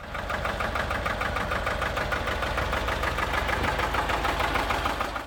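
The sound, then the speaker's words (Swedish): An engine runs steadily at idle with a rapid, even knocking pulse and a constant mechanical rumble, fairly loud, with no voices. “Det är väl ett, en motor som vi har ja, pratat lite grann om bara inte varit jättedjupt inne och pratat i idag, men som har varit med i det här avsnittet”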